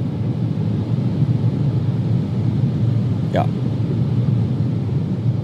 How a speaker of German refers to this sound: Die sehen lustig aus. So wie früher äh, in so Hartz-IV-Wohnungen die Dinger, die die Leute an Türen hatten. Aber da waren die aus Perlen. Und die hier sind aus flauschigem, plüschigem Stoff und putzen mein Auto gar sauber.